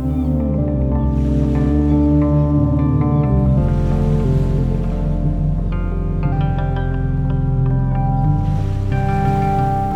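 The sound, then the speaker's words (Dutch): Ocean waves wash in steady swells on a beach with wet sand, rising and receding every few seconds beneath sustained, gentle musical tones, with no voices. “Als je nog wat tijd en zin hebt om je schoenen uit te doen, ga dan op blote voeten verder wandelen in het natte zand, aan de rand van de golven.”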